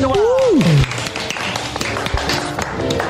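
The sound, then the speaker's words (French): Studio audience applause at La Grosse Radio, given for a very good answer: a dense, steady patter of many hands clapping that carries on for a few seconds, opening with a short falling vocal whoop over the start of the clapping. “Très bonne réponse, on les applaudit pour cette première remarque.”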